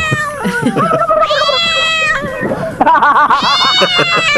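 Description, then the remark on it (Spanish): A cat meows loudly, a string of drawn-out, rising-and-falling yowls with shorter mews between them, over faint background murmur. “Eso como que son gavilanes, está mejor el gato.”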